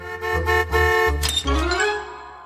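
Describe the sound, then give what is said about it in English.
A horn honks repeatedly in quick, rhythmic bursts, loud, the blasts varying slightly in pitch almost like a tune, ending with a longer, sliding honk: cartoon character Dr. Scratchansniff honking his horn to make his own song. “Scratch starts to make his own song by uh, honking his horn uh, repetitively, uh, annoying doctor, uh, annoying plots.”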